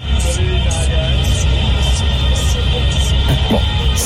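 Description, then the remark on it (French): A scooter engine runs loud with a steady low throbbing drone and continuous rattly noise, plus faint brief higher-pitched bursts repeating through it. No one speaks. “Euh, donc, commençons ce quart d'heure là qui vient par des bruits de scooter, c'est parti.”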